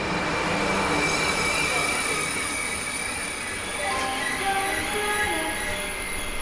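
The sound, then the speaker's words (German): A TGV Inouï high-speed train bound for Paris-Est rumbles steadily through the Voie Sacrée TGV station at platform 4, loud, with thin metallic wheel squeals and whining tones rising over the constant broad roar. “voie 4, le TGV Inouï à destination de Paris-Est va partir.”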